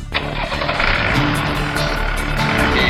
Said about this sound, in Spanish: Bueno, acá estamos por poner en marcha el rastrojero.